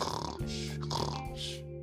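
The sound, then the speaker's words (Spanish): A voice imitates a baby snoring: a rough, guttural rasp that swells and catches in two or three throaty pulses over a couple of seconds, with no words spoken. “Emilio también roncaba.”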